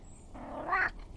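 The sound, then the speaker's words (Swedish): A cat named Flingan, rubbing against the microphone, lets out a single short, rising meow over a faint background hush, with no one talking. “Ja, jag är här med flingan som stryker sig mot mikrofonen.”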